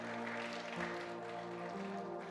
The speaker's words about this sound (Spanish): Si usted sigue despierto, déle un aplauso al Señor. Quiero, quiero ver que está despierto, amén.